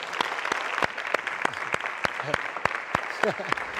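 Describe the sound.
An audience applauds to welcome television host Marco Antonio Regil, a dense patter of many hands clapping, with a few sharper individual claps standing out and brief murmured voices underneath.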